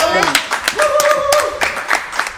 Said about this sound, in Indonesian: Kasih tepuk tangan dulu